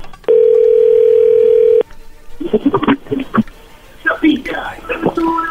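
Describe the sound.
A steady, flat telephone dial tone hums for about a second and a half, then cuts off as hushed, whispered voices take over.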